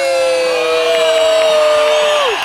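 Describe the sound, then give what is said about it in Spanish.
An audience applauds and cheers loudly throughout as a guest, a master in neuroethology from the Centro de Ciencias de la Tierra, is introduced, with a long, high whistle or whoop held over the crowd noise before it slides down near the end. “Un aplauso para”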